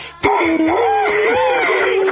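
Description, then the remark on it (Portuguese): A man's voice imitates a rooster crowing as a challenge at a circus: one loud, drawn-out call lasting about two seconds, with a wavering, rising-and-falling pitch. “Um galo.”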